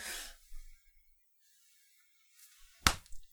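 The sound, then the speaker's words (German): A single sharp, loud hand slap swatting at a mosquito, following a brief soft rustle and near silence, with no one speaking. “Ich dachte eigentlich, er wollte Rick erschlagen. Zum Glück war es nur eine Mücke.”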